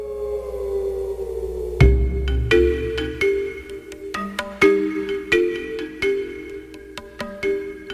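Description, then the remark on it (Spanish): A short musical jingle, the afternoon theme tune of a radio programme, plays on its own, opening with a sustained tone before a bright percussive hit launches a run of punchy synth chords and beats, loud and upfront. “Seguro que acaban de identificar que esta no es la sintonía que suena a esta hora cuando nos ocupamos de la actualidad, sino esta es la sintonía de la tarde en tu búsqueda.”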